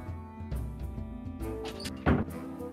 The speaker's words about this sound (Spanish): Vale, escuchen una puerta ahí.